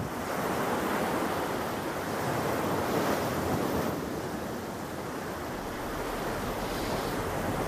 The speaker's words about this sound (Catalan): Ah, i aquest mar que ens agrada tant i que ens fa pensar en paisatges paradisíacs, en moments especials.